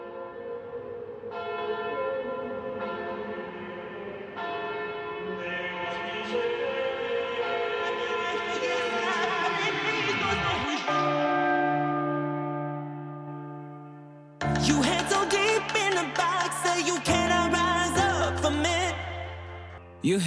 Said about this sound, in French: Pour l'instant, on va écouter un petit peu de musique et on revient avec la deuxième partie de cet entretien.